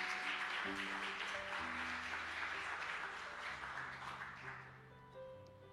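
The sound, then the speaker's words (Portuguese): A church audience applauds the Lord in a dense, sustained burst of clapping over steady keyboard chords, the applause gradually thinning and fading out near the end. “Aplaude o Senhor então, em nome de Jesus aí.”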